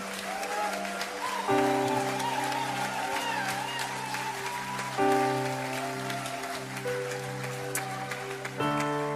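A crowd applauds steadily for several seconds for the teams who worked hard that weekend, the dense clapping running over sustained, chord-like music that shifts a few times.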